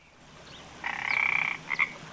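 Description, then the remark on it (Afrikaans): A frog croaks in a buzzing, trilling call, one long rasping stretch followed by a shorter burst, with no one speaking. “Maar toe, op 'n dag, spring daar 'n padda by die vrou se huis in.”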